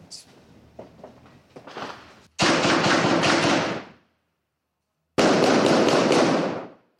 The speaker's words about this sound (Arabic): إذا كانت هذه صورة الانسحاب وهذا استهداف لقوات الاحتلال بوابل من رصاص المقاومين الفلسطينيين الذين واصلوا تصدي الاقتحام منذ بدأ